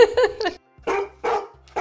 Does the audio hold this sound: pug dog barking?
yes